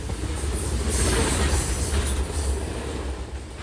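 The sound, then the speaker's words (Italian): A train rolls past on the railway tracks of a local station just outside Washington with a loud, steady low rumble and a thin metallic wheel squeal riding on top, continuous throughout with no voices. “va a sdraiarsi sui binari della stazione locale, appena fuori Washington, aspettando che un treno tranci il suo corpo e spenga il dolore.”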